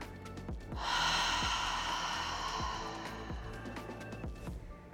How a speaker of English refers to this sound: So we're going to breathe in through the nose, out through the mouth. And again, in through the nose, out through the mouth.